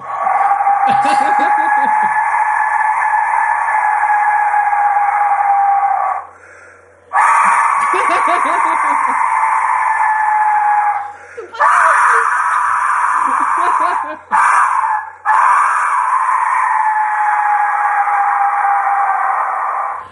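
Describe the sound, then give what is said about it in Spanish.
A modern reconstruction of a skull-shaped death whistle shrieks in long, loud, piercing blasts like a human scream, about four or five sustained wails separated by brief breaks, harsh throughout. “Con el silbato de la muerte.”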